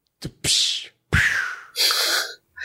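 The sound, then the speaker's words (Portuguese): A voice mimics ice being struck, cracking and breaking: a couple of sharp clicks, then three harsh, hissing bursts of breathy noise, fairly loud, with short gaps between them. “rapidinho, qual é o som que, que, que ele faz quando ele bate e quando o gelo quebra, por favor?”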